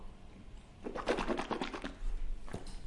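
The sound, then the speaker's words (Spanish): Coffee swished around inside a mouth as a mouth rinse, a quick series of wet, sloshing bursts for about two seconds, followed by a brief gurgling swallow-like sound; no talking. “hacer un poquito de enjuague bucal. ¿Vale? Y, pero lo voy a hacer con el cafetito.”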